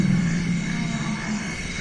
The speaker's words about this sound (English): this next soundscape comes from the Congo. These are African forest elephants. And some of the sounds you can barely hear because their frequency is so low. They're literally, literally at the bottom end of human hearing range and even below that.